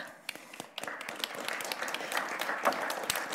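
A talk-show audience breaks into applause to welcome a guest artist and songwriter, many hands clapping in a dense, crackling burst that starts quietly, then swells and holds steady at a moderate level. No one speaks over it.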